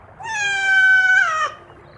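A single drawn-out meow from the cat of Puss in Boots, loud and clear, holding a steady, bright pitch for over a second before bending at the end. No voices accompany it.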